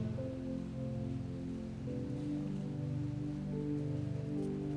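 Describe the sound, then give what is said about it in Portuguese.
Heavy rain pours steadily onto a roof, a dense continuous hiss and patter that never lets up, with low sustained droning tones humming underneath. “Porque a chuva veio para competir hoje.”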